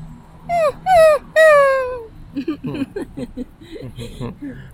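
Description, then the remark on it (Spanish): A dog whines three times in quick succession, each cry high, drawn-out and sliding downward, fairly loud; then someone starts talking. “De todo chilla.”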